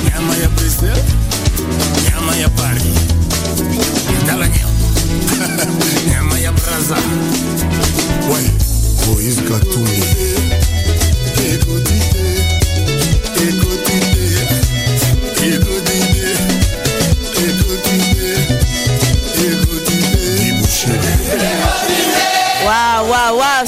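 A recorded song plays loudly and continuously, with a steady driving beat, deep bass and dense layered instruments filling the whole stretch; no one talks over it.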